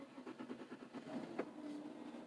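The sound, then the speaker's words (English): An old pickup truck engine cranks with a rapid, rhythmic chugging, then catches and settles into a low, steady idle hum. It is fairly quiet, with no voices. “Oh, you tired old rig. Gotta love these old country trucks, right?”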